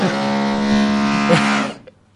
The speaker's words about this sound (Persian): نه این صدای دریل بود